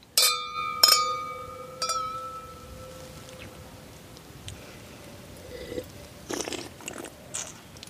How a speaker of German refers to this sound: Zum Schlürfen darfst du uns auch gleich noch etwas sagen. Dein Schlürfen klingt sehr professionell.